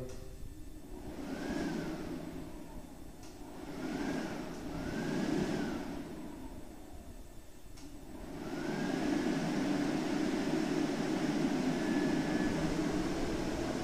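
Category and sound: household object, hair dryer blowing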